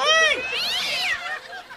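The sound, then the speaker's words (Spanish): A cat gives one long, drawn-out meow that rises and falls in pitch, loud, with no other sounds around it. “Agárrame el gato y juega con él.”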